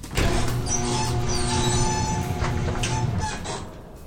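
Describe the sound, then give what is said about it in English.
A garage door, opened with a push button, grinds open with a loud, steady mechanical rumble and rattle, layered with squealing metallic tones, running about three and a half seconds before fading out. “The door kicks up a bit when okay. I open it. Let me just push the button.”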